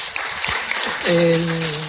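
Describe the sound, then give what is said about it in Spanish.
A crowd applauds in a steady, dense wash of clapping that fills the whole stretch, with a voice briefly rising over it about halfway through. “aplauso para ellos.”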